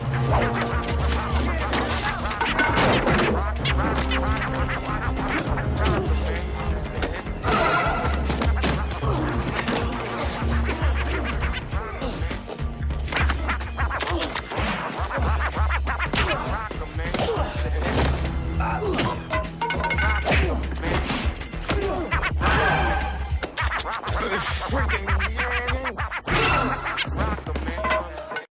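Loud, chaotic brawl of rapid punches, heavy thuds and smashing crashes, one after another over a booming, continuous backdrop, with grunts and shouts mixed in throughout.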